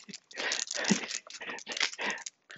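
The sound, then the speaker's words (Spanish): A dog sniffs eagerly at a hedgehog, a quick run of breathy, snuffling bursts with a little rustling, and nobody talking over it. “Rico dice que quiero olerlo. No, Rico, no. Que te va a pinchar el hocico.”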